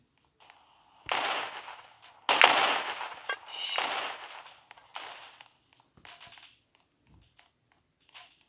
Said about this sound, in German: Ich glaube, das ist gerade im Trend, mit Raketenwerfer zu schießen.